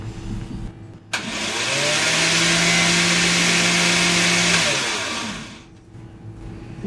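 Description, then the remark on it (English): A blender mixing two egg yolks, two cloves of garlic, a teaspoon of lemon juice, a teaspoon of white wine vinegar and salt kicks on with a sharp start and whirs steadily at a loud, high buzz for about four seconds, its motor pitch holding level before winding down and stopping. “So um, let's buzz it.”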